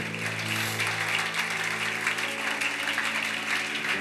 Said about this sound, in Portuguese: Se você crê, aplauda a Jesus bem forte por isso.